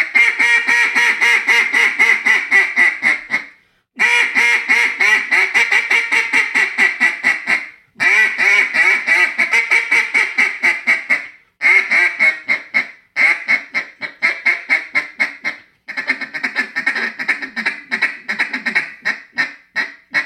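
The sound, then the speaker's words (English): A new Chit Chat short-barrel duck call blown loud, pouring out rapid strings of sharp, raspy quacks in several long runs separated by brief pauses, with no voices. “Okay, so this is going to be the new chit chat, our short barrel design.”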